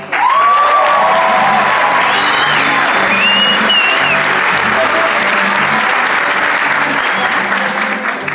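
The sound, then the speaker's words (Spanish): Loud, sustained audience applause welcoming a company executive fills the whole stretch, a dense wash of clapping with a few whistles and shouts rising above it, steady in volume from start to finish. “es que un aplauso más fuerte se lo demos al que realmente se lo merece.”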